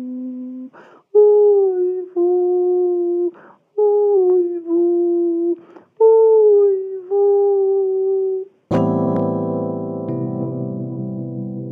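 A dog or wolf howls in a series of long, drawn-out wavering cries separated by short pauses, loud, before a dense sustained tone takes over at the end.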